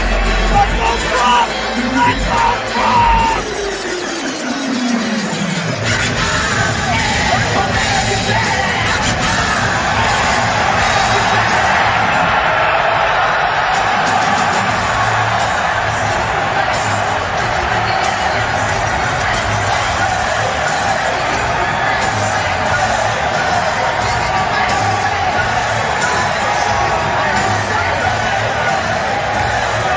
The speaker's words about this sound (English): That's the question that everyone is asking after Donald Trump and Tucker showed up together to massive applause at a UFC fight in Madison Square Garden, New York.